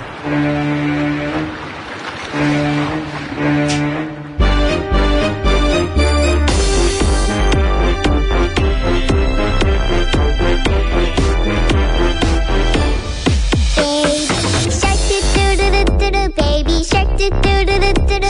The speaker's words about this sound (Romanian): Unul dintre cele mai enervante cântece din istorie, care nebunește milioane și milioane de părinți de câțiva ani încoace